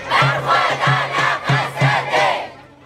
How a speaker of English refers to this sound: In the background, we can hear the manifestation. Someone shouts, I say no to Turkey attacks. The rest responds, No, no, no. Crowd chants, Long live the SDF!